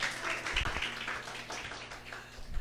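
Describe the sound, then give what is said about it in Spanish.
An audience applauds, a dense, steady wash of many hands clapping at moderate volume for a few seconds, with no voices standing out. “Otro aplauso para ustedes, en verdad.”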